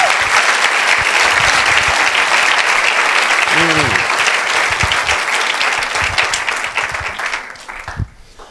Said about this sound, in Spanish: ¿Quién quiere aplaudir al Señor por esto?